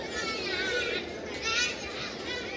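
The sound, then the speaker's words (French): A crowd of children chatters and horses around, a busy overlapping din of young voices with bursts of louder shouting, no single voice standing out. “Autour de lui, ça chahute.”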